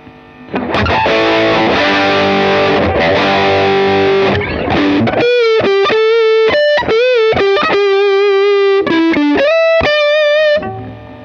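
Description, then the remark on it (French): Heavily overdriven electric guitar through a Nordvang '83 Drive, a high-gain Danish boutique double overdrive pedal: a thick, saturated chord section, then a string of sharp, staccato single-note bursts with sustained, buzzing harmonics. Loud, no talking. “test d’une extraordinaire double overdrive boutique danoise”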